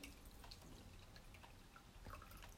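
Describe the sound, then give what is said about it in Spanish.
A small amount of water is poured into an aroma diffuser, a soft, steady trickle with little splashes and drips, fairly quiet, with no one talking. “Bueno, entonces, esta, aquí el, el difusor, le vamos a echar tantita agua.”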